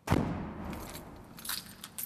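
A car boot shuts with a dull thump, followed by keys jangling and clicking as paintings are locked inside the boot in a garage, with a couple of bright metallic rattles toward the end; no one speaks.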